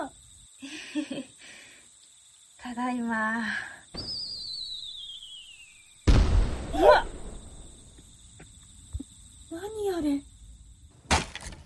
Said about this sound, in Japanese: おカニか、カニが降ってる。